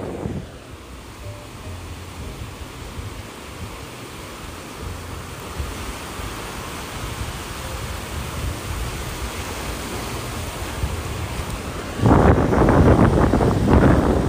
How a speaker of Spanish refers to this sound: Escucho las olas, escuchen las olas conmigo.